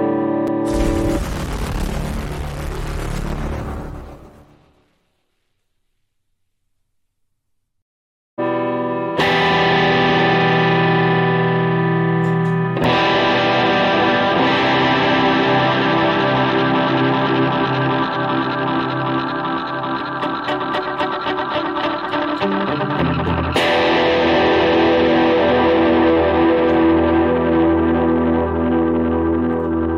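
Electric guitar run through heavy effects on the Sunday Night Guitar ASMR show: a harsh, noisy burst fades into silence, then loud distorted chords ring out, sustained and droning, changing a few times with no one talking.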